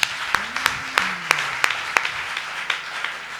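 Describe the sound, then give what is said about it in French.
An audience applauds and cheers for Jesus steadily, dense clapping with a few sharper, rhythmic claps standing out roughly every third of a second, and faint voices rising underneath. “On peut acclamer Jésus très fort.”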